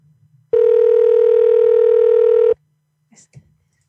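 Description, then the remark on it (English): A loud, steady electronic tone from a RoboKiller call-screening service drones on a phone line for about two seconds, then cuts off abruptly, leaving a few faint, brief noises on the line afterward. “Please say your name and the purpose of your call, and I'll try to connect you.”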